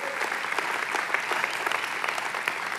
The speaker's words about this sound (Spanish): Vamos dándole un fuerte aplauso a todos los de vino nuevo. ¡Hey!